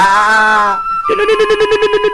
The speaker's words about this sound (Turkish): Telefon çalmaya başladı. Hay Allah.